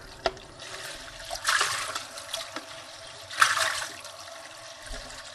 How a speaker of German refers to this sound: Mal eben noch was Wasser.